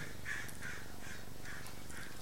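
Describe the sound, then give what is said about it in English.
Many birds call repeatedly outdoors in spring, harsh crow-like caws recurring about every half second over a steady wash of background noise, moderately loud. “I can hear a lot of birds.”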